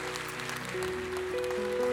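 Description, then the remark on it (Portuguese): A crowd claps to applaud the Lord Jesus Christ, a dense, crackling wash of applause, while sustained organ-like keyboard notes hold underneath and slowly grow louder. No one speaks. “para dizermos que você não está sozinho e que nós te amamos e por isso aplaudirmos o Senhor Jesus Cristo pela sua vida.”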